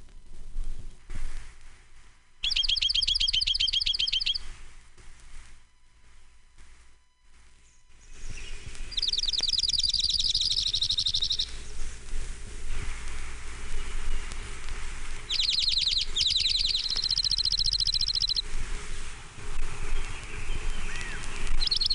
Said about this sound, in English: orange-crowned warbler.